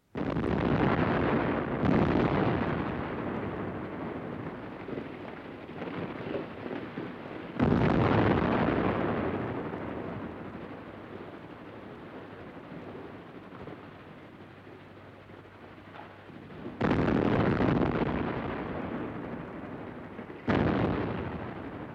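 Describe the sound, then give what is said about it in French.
A series of loud night-time bombing explosions, about five heavy blasts spaced irregularly, each hitting suddenly and then trailing into a long, rumbling roar that fills the gaps between them. No voices. “Alors, les bombardements n'avaient pas lieu la journée, mais la nuit.”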